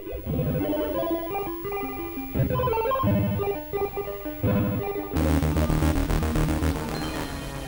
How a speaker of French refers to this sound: En revanche, l'interface est heureusement en haute résolution, mais surtout, l'adaptation s'en tire mieux sur le plan musical, comme vous pouvez l'entendre.